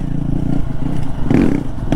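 A dual-sport motorcycle engine (Honda XR150L or KTM XCF-W 350) rumbles with a steady low drone, rising into a louder rev as it rides over a rough, dusty trail at Bent Creek Gap in the Pisgah Ranger District, with some clattering and scraping mixed in.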